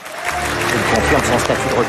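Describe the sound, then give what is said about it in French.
At the César awards ceremony, a large crowd applauds steadily and loudly, with scattered boos and voices rising through the clapping for the full two seconds, as the César for best director goes to Roman Polanski for J'accuse. “Des applaudissements, mais aussi quelques huées.”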